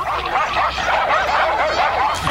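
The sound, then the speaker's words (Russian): A dense chorus of many dogs barking and yapping at once, overlapping into a continuous, fairly loud din with no pauses and no voices. “Маэстро, э, будьте добры, э, собачий лай.”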